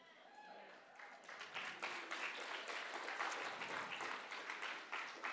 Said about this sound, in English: I hope that you're still clapping after this one